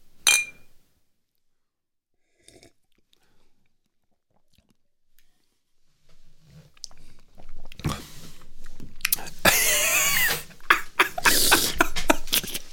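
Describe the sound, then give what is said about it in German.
Glasses clink together in a toast, a short bright chime near the start, followed by a quiet pause and then louder sounds of sipping and swallowing. “Prost.”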